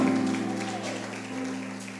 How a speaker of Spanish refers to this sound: Vamos, aplaude con fuerza al Señor.